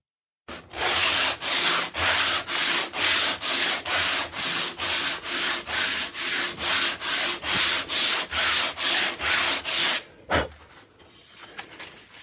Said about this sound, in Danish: Og øh, nu skal jeg bede dig spidse ører, fordi kan du høre forskel på de her to stykker sandpapir?